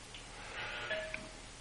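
A doorbell chimes faintly in the background, a brief soft electronic tone that sounds somewhat distant, with no talking over it.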